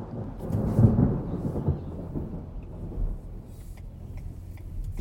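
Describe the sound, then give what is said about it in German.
A deep, rolling rumble of thunder swells and slowly fades, with steady rain hissing underneath throughout, during a drive out of the city on the A1 motorway toward Oberndorf; no voices. “Als ich mich auf dem Weg aus der Stadt über die A1 mache, regnet es passenderweise.”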